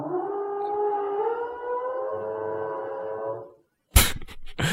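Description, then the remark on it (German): A power drill whines with a steady, buzzing pitch for about three seconds, then cuts off. After a brief silence, two loud, harsh bursts of drilling follow. Someone is drilling inside a residential building. “Scheinbar wird jetzt bei uns im Haus gebohrt.”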